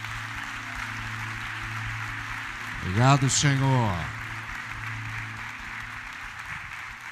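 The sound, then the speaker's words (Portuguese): An audience at a church service applauds Jesus in a steady, even wash of clapping that lasts the whole stretch, while a single voice briefly speaks over it partway through. “Vamos aplaudi-lo bem forte.”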